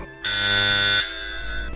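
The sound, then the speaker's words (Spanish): A doorbell gives one loud, harsh electric buzz lasting under a second, then cuts off abruptly, leaving a faint low hum behind. No one speaks. “¿Quién estará llamando al timbre?”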